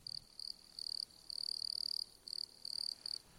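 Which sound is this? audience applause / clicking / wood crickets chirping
wood crickets chirping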